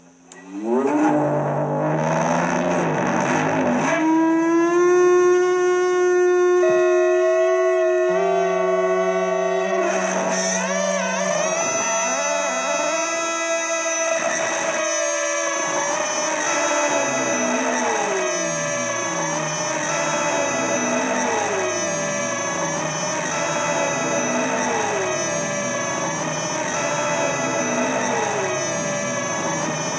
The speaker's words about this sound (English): Um, this is uh, an ebow on, on a single string, and it sounds like this.